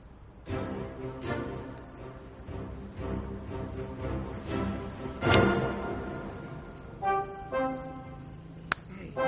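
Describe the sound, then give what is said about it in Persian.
A mosquito's thin, high-pitched buzzing pulses in short, regular bursts throughout, heard over a fuller background of low rumbling sound with a few sharper thumps. “پشه بود”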